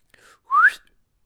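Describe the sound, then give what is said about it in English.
A single short whistle sliding upward in pitch, loud, preceded by a faint breathy lead-in, then silence. “And Hanukkah Harry whistled like this.”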